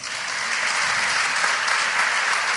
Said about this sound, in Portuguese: Um salve de palmas para os visitantes.